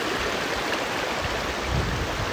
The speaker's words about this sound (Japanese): 浅瀬をジャブジャブ川に入りながら涼みながら川の中にいますちょっと水の音が聞こえますかね